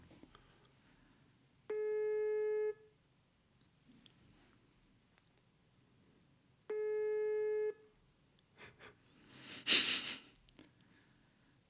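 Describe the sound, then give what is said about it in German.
A mobile phone on speakerphone, held next to the microphone while calling a contact, plays its ringback tone twice with no one answering, each steady one-second buzz separated by a long pause, followed by a few breathy rustles and a short burst of noise. “Ist natürlich jetzt Krise, wenn niemand rangeht.”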